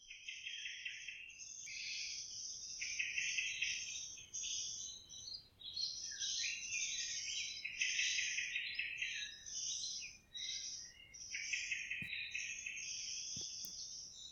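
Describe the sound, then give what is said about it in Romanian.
Calm forest ambience recorded in a forest near Bucharest, with a steady chorus of birds chirping and insects trilling, the sounds dense and continuous but fairly soft, with no talking and only an occasional faint tick. “Eu am încercat asta și mi-a luat câteva ore să înregistrez câteva minute de liniște într-o pădure de lângă București.”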